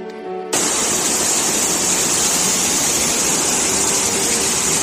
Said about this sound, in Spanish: Así sonaba el agua por una de las bocas del metro en Madrid. La ciudad llegó a registrar en 24 horas más de 100 litros por metro cuadrado.